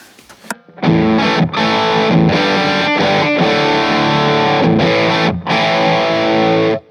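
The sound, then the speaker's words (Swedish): A heavily distorted electric guitar through an amplifier in cold bias mode, with the gain turned up slightly past 12 o'clock, plays sustained, saturated chords with a few brief gaps between strums, loud after a short quiet moment of faint noise at the start. “Och sen så har den då det här cold bias-läget mm, som är lite till.”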